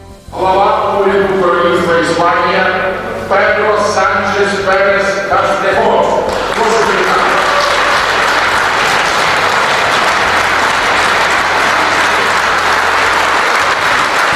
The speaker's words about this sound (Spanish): No solo la placa con el nombre de Pedro Sánchez, que han puesto en la Avenida de los Valientes también, en esta ovación que le dispensó al presidente del Gobierno de España el Parlamento ucraniano.